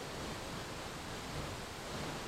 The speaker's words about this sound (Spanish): Ahora lleva tu atención al sonido de la cascada. Escucha atentamente cómo el agua cae con suavidad y firmeza, creando un flujo constante de sonido.